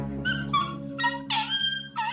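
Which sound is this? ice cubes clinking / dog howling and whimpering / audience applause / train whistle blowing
dog howling and whimpering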